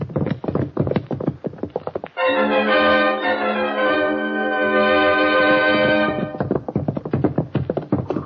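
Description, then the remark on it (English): A horse gallops away in the dark in rapid, drumming hoofbeats, briefly covered by a loud, steady held tone, then the galloping returns, still strong, with no voices. “Did you get a look at his horse? Nah, too dark. Hmm, that critter was fast as a streak.”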